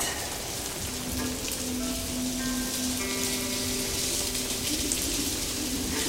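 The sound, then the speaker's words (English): Steady rain patters densely on a hard surface, a continuous hiss of droplets at even loudness, with a faint tonal hum drifting underneath throughout. “There's being all 1981 wet in the rain and your dad's afro haircut getting all soggy and you see the shape of his head for the first time.”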